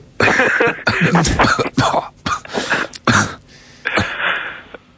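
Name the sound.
coughing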